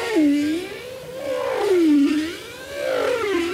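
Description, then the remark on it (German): A bowhead whale song of smooth, wavering tonal calls that rise and fall in pitch in repeated sweeping arcs, moderately loud and continuous with bright harmonics, heard alone without talk. “Wie zum Beispiel der der Grönlandwale, von dem manche sagen, er erinnere an Free Jazz.”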